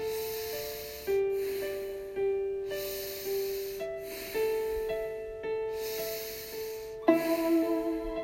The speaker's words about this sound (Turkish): Burnumdan nefes alıyorum, burnumdan nefes veriyorum. Şimdi burnumdan alıyorum, burnumdan veriyorum.